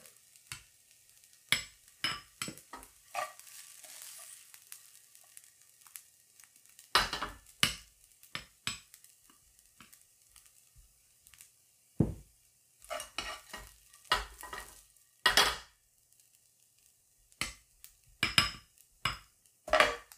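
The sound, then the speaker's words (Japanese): Fried rice is pressed into a bowl with a spoon to shape it into a dome: irregular scrapes, taps and sharp clinks against the dish, some quick clusters, with quiet pauses between and no talking. “じゃあ器に1回1回入れてカポってやってさ綺麗にドーム型になるようにしてみようかしらね”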